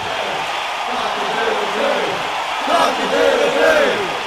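A large crowd at a live concert at the Darren Millane Oval in Collingwood cheers in a steady roar, with scattered shouts and whoops rising out of the noise and swelling louder toward the end.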